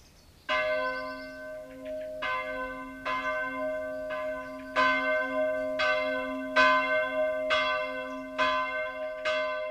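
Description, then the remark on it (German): Church bells peal steadily on a Saturday at 2 p.m., ringing in Sunday, with repeated strikes about every second and a long ringing hum sustained beneath them. The bells sound full, and no voices are heard. “Samstags um 14 Uhr wird der Sonntag eingeläutet.”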